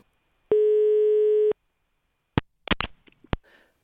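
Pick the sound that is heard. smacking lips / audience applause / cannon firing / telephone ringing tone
telephone ringing tone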